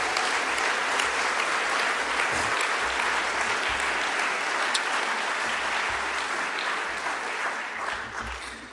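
A church audience applauds steadily during a sermon to thank the volunteers who help in the audience, a dense crowd of clapping hands sustained at full strength for several seconds before beginning to taper off at the end, with no talking over it.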